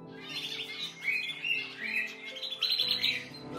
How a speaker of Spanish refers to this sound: Me refiero a los sonidos ambientales, a todo aquello que se escucha al iniciar el día en el lugar en el que vives. Puede ser el canto de los pájaros,